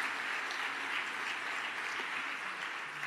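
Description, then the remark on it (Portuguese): An audience applauds to praise the name of the Lord, in a steady, dense wash of clapping that holds at an even loudness throughout, with no voices rising above it. “Aplauda o nome do Senhor por isso.”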